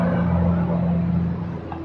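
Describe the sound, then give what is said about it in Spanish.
Heavy factory trucks rumble past outside, a loud, steady low engine drone with a deep hum that holds for a couple of seconds before easing slightly, with no voices. “¿Qué es la basura? No, son camiones de fábricas de acá arriba.”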